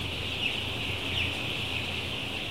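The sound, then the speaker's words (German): Steady, dense poultry-barn ambience in the afternoon in one of ten barns of a large broiler fattening farm in Brandenburg, Germany: many mostly active broiler chickens chirping and clucking together in a continuous murmur, with a constant mechanical hum underneath and a few brief brighter calls standing out. “Und jetzt sind wir am Nachmittag, da schläft kein Hähnchen, da sind die eigentlich zum größten Teil sehr aktiv, wie man sieht.”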